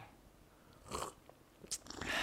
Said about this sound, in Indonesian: Seruput lo kopinya